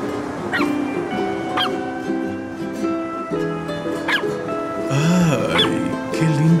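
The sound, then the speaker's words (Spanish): A small purebred dog yips in short, sharp barks, roughly four spaced a second or so apart, with high whimpering whines in between, fairly loud over a steady tonal background hum. “perrito. Es de raza, ¿no?”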